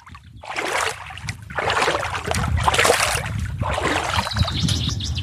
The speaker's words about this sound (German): Es gibt sogar die Möglichkeit, durchs Wasser zu laufen und sich herrlich abzukühlen.